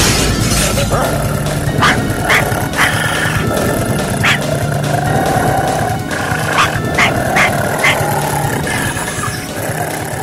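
Glass shatters as two Dobermans, a Rottweiler and a Pinscher, dead and furious, break through it into a room, barking furiously, sharp crashes and barks bursting repeatedly over a dense, constant rumble.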